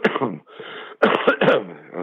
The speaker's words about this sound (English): boy, you can't cough anymore without people thinking that you you've got it.